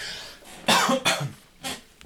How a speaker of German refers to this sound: Ähm, sondern ich muss mal ganz kurz husten, Moment.